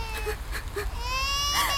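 A baby in a cradle cries in a thin, wavering wail that rises in pitch toward the end, continuous, with no talking over it.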